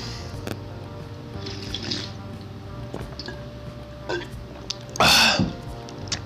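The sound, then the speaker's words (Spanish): Someone drinks water, with a few soft, spaced gulps and swallows over a low steady hum, ending in one louder, breathy gulp or exhale. “en, en vivo, este, pues tomen mucha agua, ¿no? Hagan intervalos para tomar agua, porque luego la garganta se seca.”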